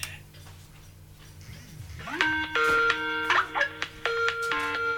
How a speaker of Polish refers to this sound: O, dźwięk jak ze Skype'a. Nam się pojawił. Słychać? Słychać dźwięk jak ze Skype'a. Tak, dźwięk jak ze Skype'a. I teraz. E, no i teraz trzeba odebrać.